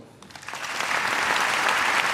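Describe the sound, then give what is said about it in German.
Sustained applause from members of the German parliament standing to welcome Israeli ambassador Ron Prosor at the start of a debate, a dense crackle of many hands clapping that swells after a quieter start and stays steady and loud throughout, with no voices standing out. “Die Debatte beginnt mit Beifall.”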